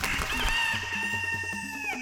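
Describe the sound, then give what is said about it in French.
A hen clucks over a continuous, steady backdrop, fairly loud for about two seconds with no talking. “Et la poule retourna librement au village.”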